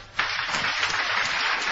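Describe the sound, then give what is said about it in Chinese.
An audience breaks into applause to encourage a person called up onto the stage, a dense, steady clatter of many hands clapping that starts abruptly and keeps going at an even loudness, with no voices over it. “就这位到台上来，好，掌声鼓励一下。”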